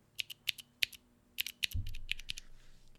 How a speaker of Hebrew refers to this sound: אז ככה נשמעת מקלדת מכנית מסוג מסוים. וכל הקטע הוא במקלעות מכניות, אה, שזה, שזה משהו ש... שהן משהו שגיימרים בעיקר משתמשים בו, אה, אנשים שמקלידים למחייתם, או אנשים שפשוט אוהבים את הצליל.